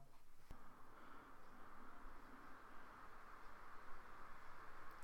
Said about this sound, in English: contemplated having to record while having a fan running near me, the only problem with that, though, is that there was a constant humming going throughout the show, which, if I just reach over and turn this fan on, you'll hear what I mean.